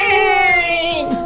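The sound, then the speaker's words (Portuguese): A single drawn-out meow from a strange cat, loud, holding a steady pitch for over a second before trailing off, with no voices over it. “Segura o gato estranho.”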